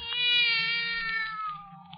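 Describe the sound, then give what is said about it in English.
A black cat sitting on top of a table lets out one long, drawn-out meow that sustains loudly for about two seconds, slowly sliding down in pitch, with no talking over it. “What's that? Oh, there's a cat now.”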